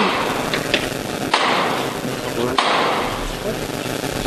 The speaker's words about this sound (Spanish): Va a sonar el martillo.